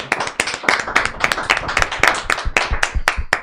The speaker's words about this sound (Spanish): Un aplauso.